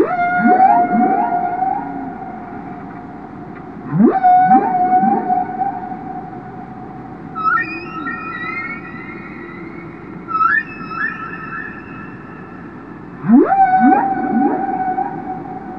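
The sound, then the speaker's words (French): Whale song recorded underwater: long rising and falling tonal calls with harmonics, repeating every few seconds over a low rumbling background, with higher whistling phrases in between. No voices. “Sans ces trois cétologues qui ont su les enregistrer, peut-être qu'aujourd'hui, il n'y aurait plus de baleines sur cette planète.”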